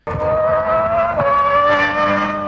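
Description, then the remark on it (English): A race car engine roars and whines as it accelerates hard with a nitrous boost, a loud, sustained high-pitched rev that climbs slightly over a couple of seconds, with no talking. “If you don't know, that's like hitting the NOS button, the nitrous on a car.”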